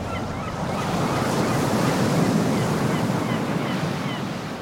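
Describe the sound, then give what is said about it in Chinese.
Ocean waves wash in a steady, full roar of surf that swells a little toward the middle and eases slightly at the end, with a breathy wind-like hiss and no voices. “左边可以看到蓝蓝的大海，就好像家里放大版的大浴缸。”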